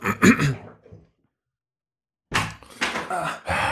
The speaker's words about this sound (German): Ich mache mal hier die Tür auf, vielleicht hilft das was. Warte mal.